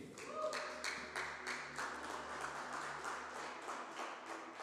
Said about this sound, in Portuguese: Gente, vamos aplaudir ao Senhor Jesus para essa família aqui?